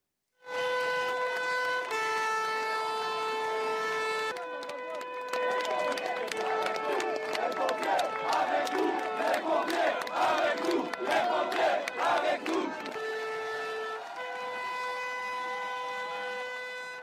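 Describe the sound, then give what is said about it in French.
A loud outdoor crowd at a march against pension reform cheers and shouts for marching firefighters in a dense, rising roar, framed at the start and end by long sustained horn-like blasts. “Je voudrais, qu'on regarde euh, ce qui s'est passé dans, dans un cortège où ils se sont fait acclamer, vos collègues.”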